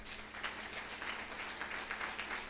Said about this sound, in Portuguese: Aplaude a Deus, aplaude.